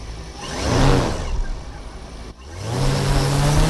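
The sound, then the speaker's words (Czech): Electric propellers of Zury, a radio-controlled white monoplane model airplane with many propellers and a 3.5-metre wingspan, whir loudly during a short test flight at a grass airfield, their buzzing pitch rising and swelling, then briefly cutting out before settling into a steady, even drone. “Zury vypadá jako jednoplošné bílé letadlo se spoustou vrtulí a za chvíli opravdu letí.”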